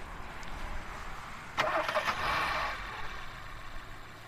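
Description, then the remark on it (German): A car engine cranks and starts with a sudden burst at a motorway rest area on the A61 toward Erftstadt, Germany, then runs steadily for a second or so before settling, over a constant low rumble of background traffic. No one speaks. “Ich stehe hier mit meinem Pkw an der A61 Richtung Erftstadt, genauer gesagt Raststätte Heimatsheim.”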